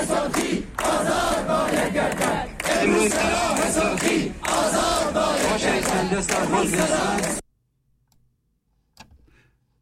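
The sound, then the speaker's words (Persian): A large crowd of protesting teachers chants slogans in unison demanding that an arrested teacher be freed, loud and rhythmic with brief pauses between phrases, for several seconds before cutting off abruptly into near silence broken by a faint click. “آنچه شنیدی در واقع صدای اعتراضات معلمان بود که در دست بلت دستگیری یکی از معلمان صورت گرفت”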